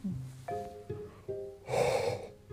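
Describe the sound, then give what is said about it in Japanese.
A drawn-out yawn: a voiced groan that shifts pitch in a few steps, then breaks into a loud, breathy exhale before trailing off. No one talks. “あくびですね”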